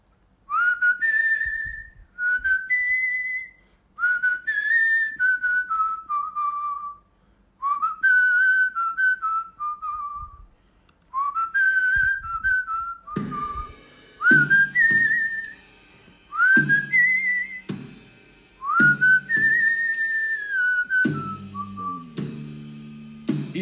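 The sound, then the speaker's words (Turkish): A person whistles a song's melody in clear, repeating phrases, fairly loud; about halfway through, a low accompaniment joins beneath the whistling and continues to the end. “Şöyle bir melodisi vardır ve bunun ıslığı çok güzeldir.”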